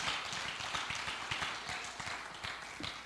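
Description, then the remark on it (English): A crowd of people claps their hands to thank God in a dense, steady round of applause that fills the whole moment, many overlapping claps blending into a sustained roar without anyone speaking. “Would you clap your hands and thank God for that tonight?”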